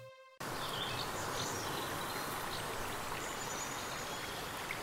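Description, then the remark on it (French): A steady rush of flowing stream water, fairly loud, babbling continuously after a short tonal note at the very start; no one speaks. “Écoute, imagine-toi marcher le long d'un cours d'eau.”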